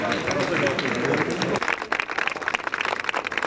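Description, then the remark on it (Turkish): A crowd of mourners breaks into sustained applause, dense rapid clapping from many hands, as a journalist's coffin leaves the capital for burial in Şanlıurfa, preceded by a brief stretch of murmuring voices and crowd noise. “Bekir Coşkun, başkentten toprağa verileceği Şanlıurfa'ya son yolculuğuna alkışlarla uğurlandı”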